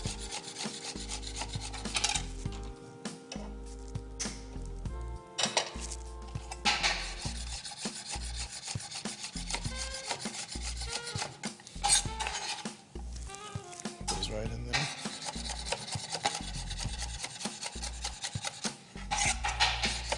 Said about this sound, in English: So whenever we're cutting to make dice, all we have to do is slice it first, turn it at an angle, slice it again. Then we have dice.